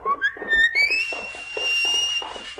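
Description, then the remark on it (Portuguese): A clear, loud whistle rises in pitch and then holds a long, steady high note, over a steady rhythmic pulsing of lower sounds underneath. “De onde virá esse assobio?”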